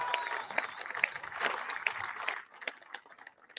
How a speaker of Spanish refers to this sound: Reconocer a las empresas que estuvieron y que siguen trabajando en las obras de el Istmo. Un aplauso para todas las empresas